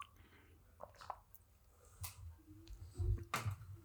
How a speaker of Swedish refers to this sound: Nej, jag, det... stor, stor klunk vatten?